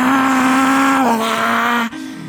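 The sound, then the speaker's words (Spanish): A man's voice imitates a car engine revving up to 100 in first gear: a loud, sustained droning hum that dips slightly in pitch, cuts off briefly, then kicks back in. “No, y, me acuerdo, o sea que olía hasta nuevo y lo levantabas en primera a 100, güey.”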